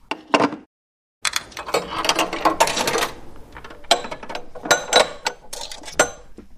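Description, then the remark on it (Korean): After a call ends, a public payphone handset is hung up with a clunk. After a short pause, coins clatter and jingle repeatedly as they drop and rattle into the payphone's metal coin return slot. Fairly loud, with no talking. “통화 마치고 수화기를 내려놓으니까 동전이 딸그락 떨어졌죠.”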